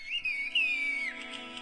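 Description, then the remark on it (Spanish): A single long, piercing human whistle in the whistled language that villagers in a Turkish village use to communicate, its pitch wavering and gliding slowly downward before breaking off, heard alone over faint background hum with no talking. “Y ellos así se comunican en la aldea.”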